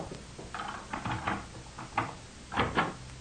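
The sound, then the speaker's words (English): A roomer's door is unlocked and opened: a cluster of rattling metallic clicks and knocks, then a short pause and two sharper clunks as it swings open, with no voices. “Sure, I'll open it for you.”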